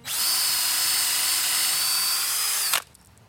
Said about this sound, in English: Okay, one row down. nice. So your plan is to drill all the holes and then insert the dowels. Yes.